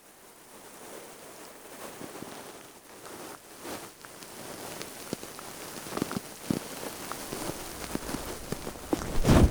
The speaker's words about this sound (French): Frottement du micro sur fourrure.